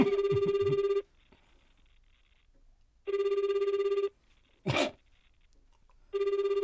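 An outgoing phone call's ringback tone, placed from a mobile phone to comedian Tomoshige, purrs in one-second bursts separated by two-second gaps, three cycles in all, with a brief noisy rustle between rings and no one talking; the call goes unanswered.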